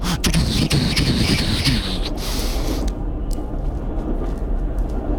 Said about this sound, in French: parce que s'endormir dans un train, Tatac tatoum, tatac tatoum, tatac Et puis les bruits des trains, les rails qui grincent, et puis le, les trains qui se croisent.